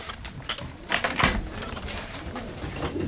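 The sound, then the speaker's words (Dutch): Low, murmuring coos from several pigeons overlap in an old pigeon loft with 16 compartments and 32 pairs, in a garden in central Rotterdam, mixed with scattered shuffling and soft tapping sounds, steady and moderately quiet throughout. “Hier gaan we het oude duivenhok in.”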